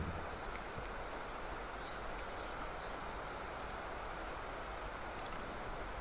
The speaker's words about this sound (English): and as we hear the sound of the rain falling.